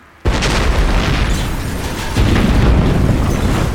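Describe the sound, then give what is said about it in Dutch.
A sudden, loud explosion blasts apart a concrete canal lock floor after a brief quiet moment, followed by a sustained roaring rumble of debris falling into the canal that swells again midway and keeps thundering to the end, with no voices. “Daarmee bliezen ze in één klap.”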